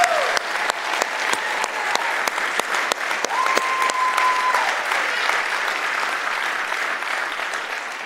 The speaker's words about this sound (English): I hope that you hear that arousing applause.